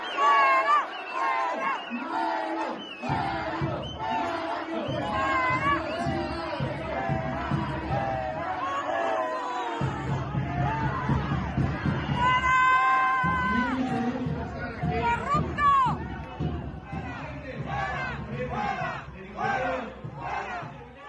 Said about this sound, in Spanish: Ahí estamos, ahí vimos las protestas y es lo que se noticia este, fin, este inicio de semana.